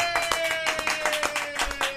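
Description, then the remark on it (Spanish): Steady hand clapping, about a dozen quick, sharp claps in an even rhythm lasting a couple of seconds, with a faint steady tone humming underneath. “hago un aplauso.”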